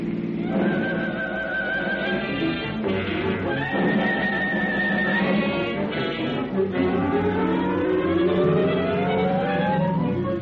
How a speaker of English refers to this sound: The two officers jump on their motorcycles and start after the fleeing car. At the next block, it pulls up for a boulevard stop.